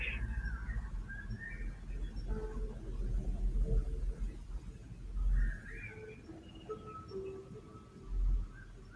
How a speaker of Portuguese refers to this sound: vamos caminhando, sentindo o calor do sol, ouvindo os passarinhos.